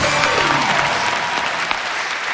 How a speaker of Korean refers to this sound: 네. 노를 맞으신 다섯 분에게 여러분 다시 한번 박수 부탁드리겠습니다.